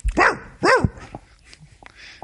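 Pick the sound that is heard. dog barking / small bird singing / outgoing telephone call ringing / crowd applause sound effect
dog barking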